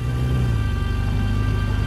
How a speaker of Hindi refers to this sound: film देखने की धुन में अंधा रोहन बाइक को हवा की रफ्तार से भगाने लगा